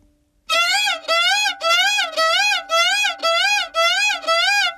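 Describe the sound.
A person's voice imitates a baby crying as a vocal impression act: eight loud, wailing cries in a steady rhythm, each about half a second, clear with short breaths between.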